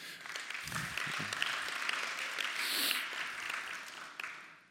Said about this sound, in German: Super, Applaus